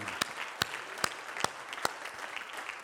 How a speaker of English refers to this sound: Why don't you give him a hand clap?